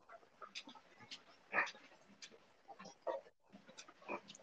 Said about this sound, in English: Actually, oh, also there's a pig in my house, which is fun, a, I guess. I know. I, I know yeah. there's a pig. Well, she's very loud house. all the time. Like, she doesn't know how to shut up.